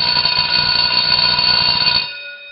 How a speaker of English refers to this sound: Whoa, whoa, whoa. The bell doesn't dismiss you. I dismiss you. And by the way, that person who so eloquently said that the bell sound effect was off last week, well, look, buddy, it's not a sound effect, it's real.